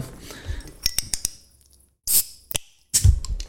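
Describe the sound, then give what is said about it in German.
A bottle being opened: a few sharp clinks and clicks of glass and metal, then a brief hissing burst and another short fizzy release, with no one speaking. “Komm, wir machen erstmal auf hier.”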